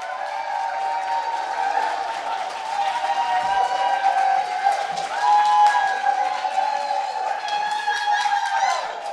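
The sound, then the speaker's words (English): A large audience at a live storytelling show applauds steadily and loudly as a drag performer comes on stage, with whoops and cheers rising over the dense clapping throughout, the ovation swelling slightly toward the middle before continuing strong. “normally when I come on stage to that kind of applause, I'm taking something off, so I'm a little confused right now.”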